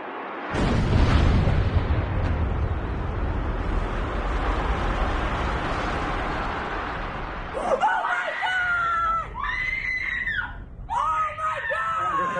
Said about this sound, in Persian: ساعت 9 3 دقیقه هنوز همه تو شوک بودن که هواپیمای 175 هواپیمایی یونایتد با برج جنوبی و شماره دو برخورد میکنه.